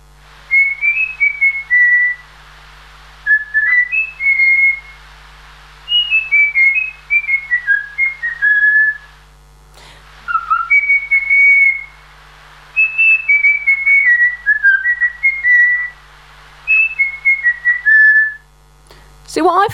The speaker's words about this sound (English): here's a beautiful example of a trained bird. Kind of given the game away here. I should have said this was a human, but actually, this is a bird you're about to hear that was trained by a German woodchopper. So, this is a bird, not a human.